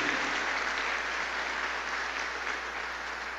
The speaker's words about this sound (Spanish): Miren qué hermosa está. Demos un aplauso a Dios por estas personas. Que Dios les bendiga.